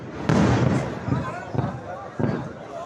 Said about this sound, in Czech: Výbuchy zatím zněly v okolí